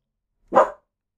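A single short dog bark rings out, sharp and fairly loud, with silence before and after and no voices.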